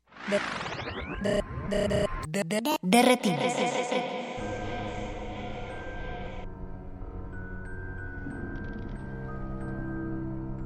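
A rock song plays loudly and steadily, starting with a busy, clashing burst of guitar-like tones and hits before settling into sustained chords over a low, droning bass.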